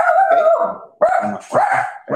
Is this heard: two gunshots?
no